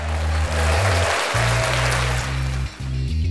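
Loud, dense applause fills the whole few seconds, a steady crackling crowd clap over a low, droning tone that shifts pitch in steps.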